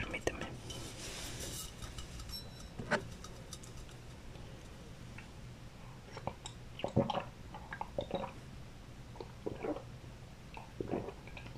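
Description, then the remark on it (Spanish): Several soft sips of hot tea sweetened with a spoonful of honey, drunk from a cup, with small wet slurping and swallowing noises spaced out over a quiet background. “Si me permites, tengo un poco de sed y me preparé un té. No sé si pueda darle algún traguito para seguir hablándote.”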